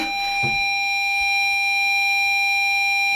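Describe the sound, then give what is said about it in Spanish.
A retro video game loading sound, heard while the game loads for about five minutes: steady, piercing electronic tones held without a break for the whole stretch, over a faint hiss, with a brief low thump near the start. “que esto es lo que vais a escuchar durante 5 minutos oh, para que se cargue el puto juego.”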